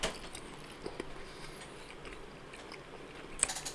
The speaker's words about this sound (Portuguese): eu morrendo de fome aqui. vai ficar comendo.